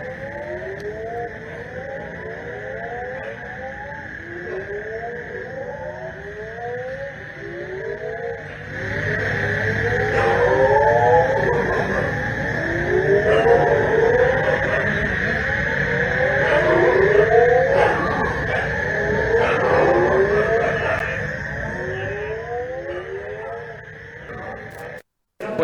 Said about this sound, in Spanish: No es una película de, terror. Buen concierto. Un concierto de sapos y moscos que hubo también.